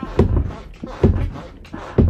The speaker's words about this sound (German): So, hier, guck mal, ich kann auch einfach nur mal einen Podcast haben mit diesen Schulknatschen. Hier mit dieser Schranktür.